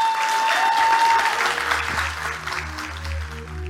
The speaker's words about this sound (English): Clap it up for Ma, y'all.